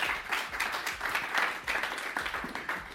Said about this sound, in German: Dann bitte ich noch einmal um einen Applaus für unseren Gast